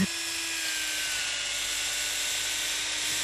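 A steady, high-pitched drilling whine heard through the walls runs unbroken through the whole moment, with a constant buzzing hum underneath and no one speaking.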